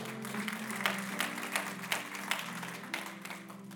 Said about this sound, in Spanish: Denles aplauso fuerte a Cristo porque Él es bueno.